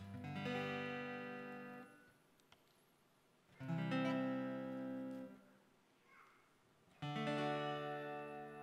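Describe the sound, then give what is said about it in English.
Three sustained guitar chords ring out one after another, each strummed cleanly and left to fade before a short pause, played fairly loud with no talking. “And after a while, my guitar playing, my guitar chording that started off sounding like, like this, eventually sounded start to sound like this.”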